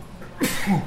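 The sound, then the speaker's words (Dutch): A single sudden sneeze bursts out after a brief quiet moment, sharp and breathy at first, then trailing off with a short voiced tail. It's moderately loud, with no talking. “Gezondheid.”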